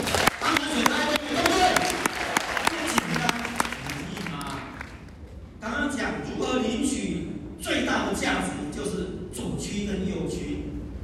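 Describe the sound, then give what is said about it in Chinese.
An audience at a talk about passive-income business applauds itself, a dense burst of sharp claps lasting a few seconds before it fades out and someone starts talking over a faint murmur. “一百分给自己掌声一下。”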